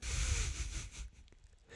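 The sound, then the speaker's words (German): A person breathes heavily and noisily through the nose, a loud, rough snorting huff lasting about a second, then a softer, quieter breath. “Du schnaufst, du wie ein Seeleu. Wie ein Seeleu. Ich schnaufe...”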